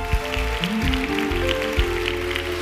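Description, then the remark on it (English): A church audience claps steadily as a hand of praise in a dense, continuous wash of applause, with sustained keyboard or organ tones holding underneath and a few low thumps. “And everyone said, Come on, let's give him one more hand of praise.”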